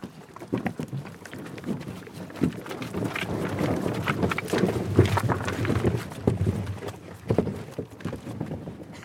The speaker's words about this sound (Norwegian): Forskeren er den første som rodde den båten.